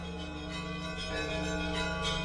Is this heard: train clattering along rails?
no